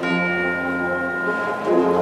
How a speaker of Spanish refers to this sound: Suena una campana, esos tubos ya tan habituales en algunas de las agrupaciones y bandas.